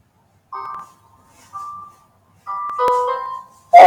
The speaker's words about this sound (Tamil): okay going to try this karaoke version எனக்கு வந்து volume எல்லாமே ஒரு வாட்டி பார்த்து சொல்லுங்க எப்படி இருக்கு